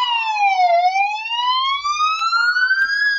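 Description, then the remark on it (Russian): A loud emergency rescue siren wails continuously during a memorial ceremony, its pitch dipping and then slowly rising again in a smooth sweep, with no talking over it. “И сейчас вы слышите этой трагедии звучат спасательные сирены.”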